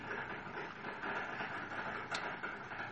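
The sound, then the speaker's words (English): A coffee maker runs loudly, a steady mechanical rumble and hiss that fills the space without pause, with a brief sharper burst near the end and no voices. “Sorry, that coffee maker is so loud right now.”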